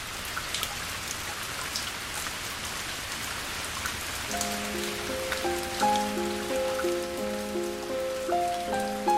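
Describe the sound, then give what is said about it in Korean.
Steady heavy rain from a sudden rain shower pours down with a dense hiss and patter, joined midway by soft sustained musical notes playing a slow melody over the downpour. No one speaks. “갑자기 소나기가 쏟아졌습니다.”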